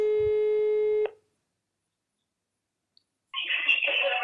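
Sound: mobile phone call tone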